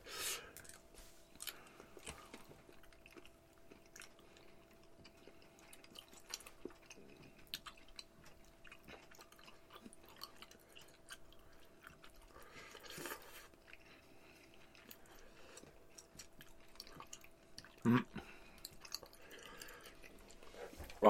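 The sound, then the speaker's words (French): Sticky chewing of jelly beans: soft wet smacks and squelches that come in irregular bursts over a quiet background, with one louder click near the end. “J'ai un mélange de comme toutes les beans dans les dents, tu sais.”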